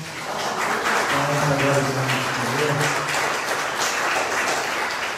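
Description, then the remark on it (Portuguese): A church audience applauds Jesus in a dense, steady wash of clapping that lasts throughout, with a voice briefly calling out over it early on. “Em nome de Jesus, aplaude Jesus aí, então.”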